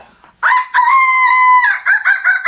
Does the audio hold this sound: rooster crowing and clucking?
yes